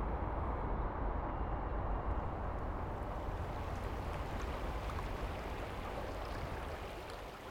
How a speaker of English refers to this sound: You are now at the Beach House Cafe. You sit in front of the sea. The sea always intrigues, excites, and scares you. The sea has such a hold and power on you.